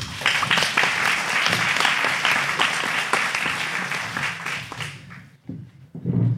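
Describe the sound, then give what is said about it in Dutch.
Loud, sustained applause from an audience for an audience member invited up to sit in the host's seat, a dense patter of many hands clapping for about five seconds before fading out, followed by a brief voice and some low rumble. “Applaus!”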